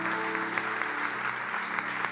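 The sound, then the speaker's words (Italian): An audience applauds for Marco in thanks for his work, a dense, steady wash of many hands clapping at an even loudness for the whole two seconds, with a few sharper individual claps standing out. “E quindi eh, poi avrà ancora da lavorare, quindi facciamo un applauso a Marco, grazie.”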